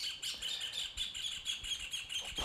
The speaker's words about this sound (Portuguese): passarinho resolveu cantar bem aqui. Estão ouvindo os passarinhos? Né? É né? um dos privilégios da gente estar tá na, na chácara aí, né? Mas esse foi alto.